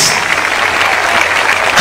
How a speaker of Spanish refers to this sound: Cuando, aplauda, hermano, aplauda a todo el mundo. Porque aquí lo más lindo es, que estamos juntos unánimes.